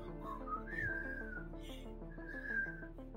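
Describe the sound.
A person whistles a slow, wavering tune, imitating a man who whistled while sitting on the witness stand at a trial, the high pitch sliding up and then holding in long drawn notes, fairly loud over a low steady hum, with no talking.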